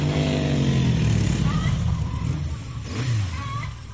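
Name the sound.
car being parked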